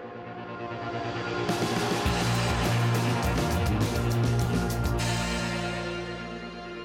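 A dense, loud song plays with no talking, heavy sustained low tones under a bright, noisy wash of distorted guitars or synths that swells in the middle and then thins out.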